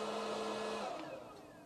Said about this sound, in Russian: Сейчас загрузится принтер. Принтер это очень дорогое и очень Э, технически сложное устройство, которое может писать как шрифт Брайля, так и графику, графические рисунки может изображать.